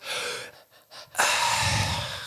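A singer breathes heavily and pants close to the mic, a run of quick breathy gasps followed by a long, loud rush of exhaled breath, with no words spoken.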